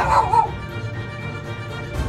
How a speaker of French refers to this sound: Petite chienne se décida finalement et se mit à aboyer à tue-tête.